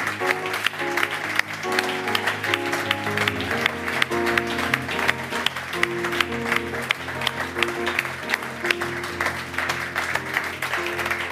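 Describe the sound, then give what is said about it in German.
An audience applauds a guest at the end of a show for about eleven seconds, a dense, continuous patter of many hands clapping at an even loudness, with tonal music playing underneath. “Und mit diesem Applaus geht die Geschmackssache der Podcast für heute zu Ende.”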